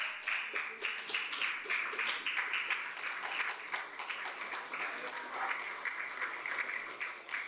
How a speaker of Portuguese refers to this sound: Vamos ficar em pé, vamos aplaudir Jesus.